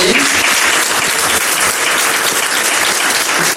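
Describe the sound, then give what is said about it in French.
An audience bursts into sustained applause for the Après Influence team of Sciences Po, a dense, steady wash of many hands clapping at full volume that holds evenly for several seconds with no talking over it. “on peut les applaudir aussi, ils ont bien travaillé.”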